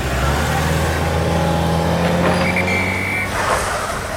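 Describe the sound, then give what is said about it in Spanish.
Steady road traffic passing a road works site, with a deep engine rumble from cars and trucks, constant and fairly loud, with a brief high squeal partway through. “Pero esos coches están circulando.”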